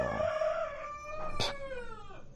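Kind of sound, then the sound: bird, rooster crowing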